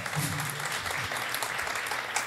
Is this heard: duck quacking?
no